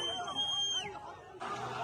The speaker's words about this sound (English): Look at the excitement, look at the celebration. People screaming Allahu Akbar as hostages are driven away, including the bodies of people being beaten in the streets.